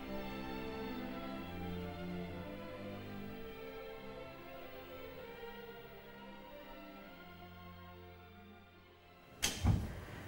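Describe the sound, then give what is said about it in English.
A muffled, sustained musical drone from an orchestra rehearsing plays for several seconds, then a door opens near the end as people come out, with a sudden loud clunk and a brief rush of sound. “Well, the door is opening.”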